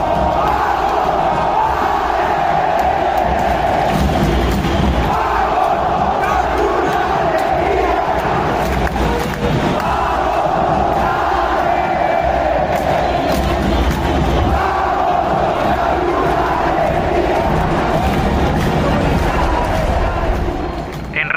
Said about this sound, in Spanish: El pitazo final ni se escuchó, entre el grito de la multitud que volvió a saborear una alegría.